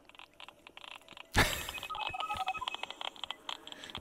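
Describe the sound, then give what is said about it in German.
Ambient electronic music made from sonified Wi-Fi signals, captured with an iPhone hacked to repurpose the signal by artists from Great Britain in 2014: a sudden burst of noise gives way to scattered bright beeps and short tonal blips over a soft hiss, with no voices. “haben da so eine Musik quasi komponieren lassen nach Netzwerken und Empfangslage”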